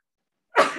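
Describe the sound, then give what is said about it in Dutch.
A single sharp sneeze bursts out after a moment of silence, loud, with no talking around it. “Gezondheid.”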